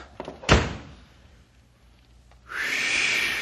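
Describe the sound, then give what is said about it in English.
A door slams shut with one loud thud that quickly fades, followed by a moment of near quiet and then a steady, breathy hiss rising in the background. “Quick, Sam, the door!”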